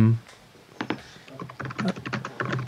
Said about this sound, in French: On entend son clavier, il tape.